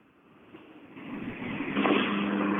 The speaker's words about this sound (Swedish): Det kommer en bil fram till mig.